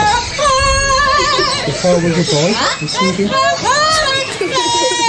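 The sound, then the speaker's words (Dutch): A parrot warbles loud, sliding, melodic notes, mimicking a pop singer's vocal runs almost one-to-one for several seconds, with a few spoken words mixed in. “Weet je nog die ene papegaai die heel goed … na kon doen?”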